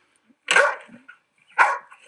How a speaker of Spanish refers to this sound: Ahí está Gastón. Que ya os digo que es un perro que es un loco